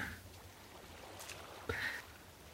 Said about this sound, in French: Le bruit des vagues sur cette plage déserte